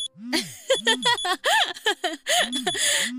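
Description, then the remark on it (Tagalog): A cellphone alarm set as a birthday reminder rings with a bright, warbling melodic tone, repeating in short sweeping bursts for a few seconds, fairly loud. “Nag-alarm lang po yung cellphone ko.”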